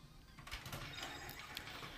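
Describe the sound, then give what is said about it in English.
A printer in a room whirs and clicks steadily as it prints something, its mechanical feed producing a busy, continuous grinding rattle with sharp intermittent ticks. “I mean, uh, sorry, the printer in my room is printing something, so I must have clicked print.”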